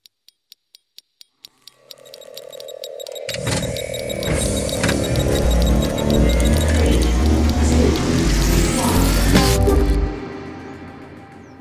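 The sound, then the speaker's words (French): A sci-fi time machine effect: rapid ticking clicks lead into a steady hum, then a loud swelling whoosh with rising, warbling tones and rumbling that builds for about eight seconds before cutting off abruptly. “Je te propose euh, qu'on lance la machine euh, à remonter le temps.”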